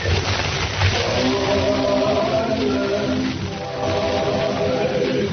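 A group of voices sings a carol together in sustained, harmonized notes, steady and moderately loud with a slightly muffled, distant quality, and no spoken words.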